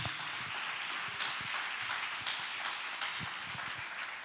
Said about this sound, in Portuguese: Você pode dar um aplauso ao Senhor, só para você dar uma animada aí?